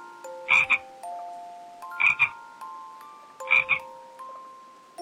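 A frog croaks three times at a steady pace, each call a loud, raspy double-pulsed burst, with soft sustained tones humming underneath between calls. No one speaks.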